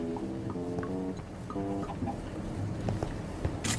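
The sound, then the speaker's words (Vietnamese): A chicken in a video game clucks in short repeated bursts, moderately loud, with a steady low background hum running underneath and a brief sharp rustle near the end. “À cái kìa có một gà kìa Hề hề tôi sẽ bắt”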